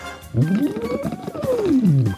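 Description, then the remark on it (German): A voice hums through a rubber tube into a water bottle as a vocal warm-up, bubbling steadily as the pitch glides smoothly up and then back down in one loud, continuous two-second sweep. “Ich habe immer so eine Wasserflasche dabei mit einem Gummischlauch und mache dann immer”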